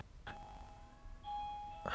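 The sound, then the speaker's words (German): A doorbell at the speaker's home chimes a two-tone ding-dong, each note ringing out and sustaining, soft, with no talking over it. “bei mir klingelt es gerade.”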